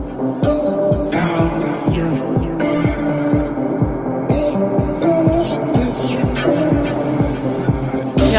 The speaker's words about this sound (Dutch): En zo gaat het eigenlijk gewoon heel het nummer. Dus straks komt er een beat, maar dat, is het dan. Het varieert een beetje. Ik zou zeggen, heerlijke flipmuziek, toch?